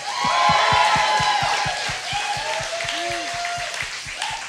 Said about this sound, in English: Okay, so so uh, uh, by your hands, by your applause, who wants coda? Nobody. Nobody wants coda.